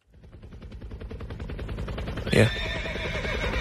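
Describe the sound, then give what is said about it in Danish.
A rapid, steadily chopping helicopter-like rotor sound speeds up, then a loud horse whinny bursts out midway and the mechanical chugging carries on, a comic sound-effect mashup representing a horse-meat helicopter. “Det er lyden af en øh, hestekødshelikopter her.”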